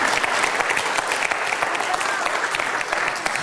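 A steady round of audience applause, dense overlapping claps forming a continuous, fairly loud wash of sound with no break for the full few seconds.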